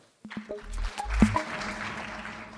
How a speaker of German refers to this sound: Gelungen ist das Verena Kessler, die mit äh, Die Gespenster von Demin äh, für den Aspektepreis für das beste Debüt nominiert war und jetzt hier daraus vorliest. Applaus für Verena Kessler.